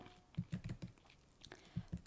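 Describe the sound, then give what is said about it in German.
Quiet typing on a keyboard: a quick burst of soft clicks, a brief pause, then a couple more taps, with no voices. “Ich glaube, ich kopiere jetzt mal das Minus B, da muss ich nicht immer so komisch tippen.”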